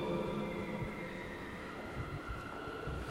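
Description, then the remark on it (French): A steady, hollow ambience inside Saint-Malo Cathedral in Saint-Malo, France, with a low rumbling wash and faint humming tones, quiet, diffuse and echoing, with no voices. “Vous l'entendez, ça résonne”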